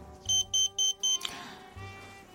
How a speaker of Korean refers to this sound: 아니, 왜 이렇게 자꾸 호출을 하는 거야? 안 한다니까. 아, 여러분, 죄송해요. 이 제 삐삐 진동 소리 뭐 너무 시끄러웠죠?